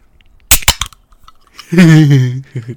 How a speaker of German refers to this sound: Das ist Running Gag, dass ich mir irgendwann eine Dose aufmache. Ich habe extra eine, eine Energy Drink geholt, obwohl ich eigentlich gar keinen trinken will.